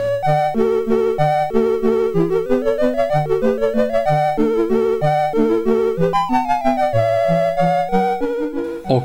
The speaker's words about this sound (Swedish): Eh, titellåten alltså på Ghosts and Goblins är ju den som är känd. Den låten finns överhuvudtaget inte på arkadspelet utan den är en helt original komposition. Highscore-musiken däremot är en arkadkonvertering och låter så här.